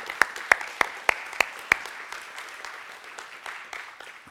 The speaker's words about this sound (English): There is so much that's been going on behind the scenes to literally take everything that we do as a church, most of which is face to face, and make it virtual. Can you guys just applaud our staff just for a second? Yeah.